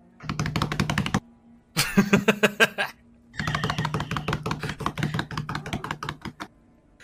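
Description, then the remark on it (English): Rapid, rhythmic hand tapping on a hard surface comes in three fairly loud bursts with brief pauses between, the beats slightly uneven. Someone laughs briefly. “your mage hand is just awkwardly like tapping out of time with your other two okay. actual hands”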